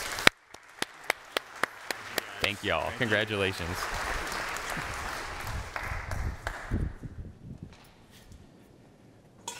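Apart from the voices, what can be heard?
audience applause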